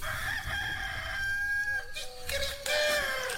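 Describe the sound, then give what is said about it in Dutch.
A rooster crows loudly, a long drawn-out call with a strained, wavering tail, followed by a second burst of crowing; no one speaks. “Dat word je wakker van, hè, dit geluid.”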